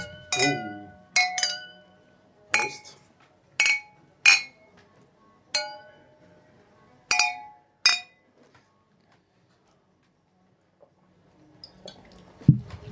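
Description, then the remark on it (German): Glasses clink together repeatedly as a group of men toast at the Zypresse, Westbahnstraße 35a, Vienna: around eight bright, ringing chinks in irregular succession, each with a short shimmering decay, followed by a faint rustle and a low bump at the end. “Prost, die Herren. Prost. Prost. Prost.”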